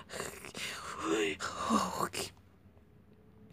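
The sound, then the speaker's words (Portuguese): A voice imitates strange, distressed crying: breathy sobs, wavering moans and sharp gasps in a couple of bursts, fairly loud, then trailing off into quiet. “mas não era um choro comum do tipo buá ou shh, era um choro esquisito, uma mistura de soluços, gemidos e falta de ar.”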